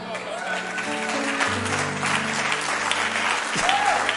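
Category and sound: crowd, audience clapping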